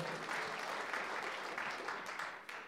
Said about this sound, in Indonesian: Mau tepuk tangan buat Tuhan Yesus, saudara?